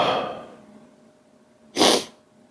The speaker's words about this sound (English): to the sniffling you're putting up with as I speak into this microphone.